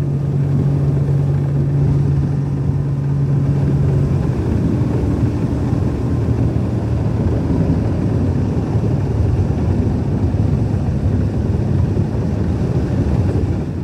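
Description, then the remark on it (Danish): Strong wind buffets the microphone in a steady, loud low roar while a boat sails under the Vejle Fjord Bridge on Vejle Fjord, with a humming engine tone for the first few seconds; no one speaks. “vinden den blæser godt i, øh, i, øh, i mit ansigt.”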